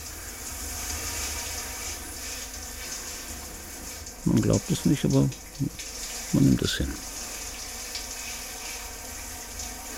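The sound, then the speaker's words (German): Shower water runs steadily throughout, a constant loud hiss, while a man speaks a short phrase partway through over the flowing water. “fragte ich unter der Dusche, wie läuft so mit Bärbom? Wie? Verstehe ich nicht, das Wasser ist zu laut.”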